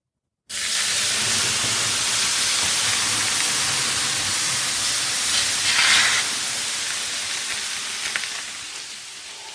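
A ladle of lemon-scented water splashes onto hot sauna stones and erupts into a loud, sustained steaming hiss, swelling briefly midway before slowly tapering, with no voices.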